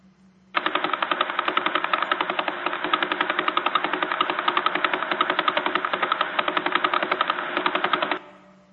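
A sonified signal from the Vela pulsar, a star whose centre spins 11 times per second: a loud, rapid train of steady buzzing pulses, about eleven per second, running evenly for several seconds before cutting off abruptly, with no voices.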